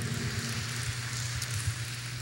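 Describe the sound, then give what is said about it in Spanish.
A church audience gives a loud round of applause to the Lord in the afternoon, a dense, steady wash of clapping that crackles evenly throughout, with a low droning hum underneath and no voices. “Démosle un fuerte aplauso al Señor en esta tarde.”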